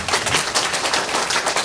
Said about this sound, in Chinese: 原来你们跟我一样开心，给自己热烈的掌声。